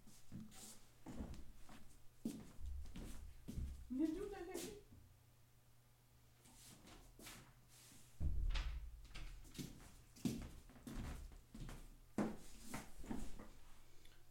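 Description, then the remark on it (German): A door is pushed shut with a dull thump partway through, surrounded by scattered clicks and handling noises over a steady low hum. “Ich mach mal die Tür so.”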